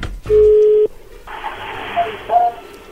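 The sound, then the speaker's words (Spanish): A phone call connecting: one steady, mid-pitched ringing tone about half a second long, then a switch to thin, hissy telephone-line noise with two brief faint beeps. “Bueno, a ver, ahí ya entró la llamada, no hagan ruido.”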